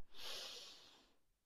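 A single deep, steady breath drawn in through the nose during a guided breathing exercise, an airy hiss lasting about a second before fading out, with no talking.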